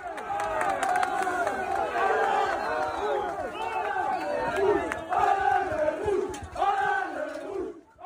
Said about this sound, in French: Pourtant, l'accueil du bus rennais au Roison Park était bouillant.